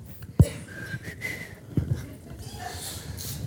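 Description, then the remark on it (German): Someone whistles a slow, wavering melody in short, soft phrases, with a couple of dull thumps and faint breathing around the notes. “Und dann in meinem Kopf, ja, so diese, dieses kleine Männchen, das da wohnt, hat so angefangen zu pfeifen.”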